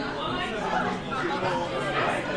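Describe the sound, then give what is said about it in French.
Steady crowd chatter fills a large hall that can hold about 300 to 400 people, a dense, even murmur of many overlapping voices with no single speaker standing out and no pauses. “On est quand même dans une salle qui peut contenir quoi, entre 3 et 400 personnes.”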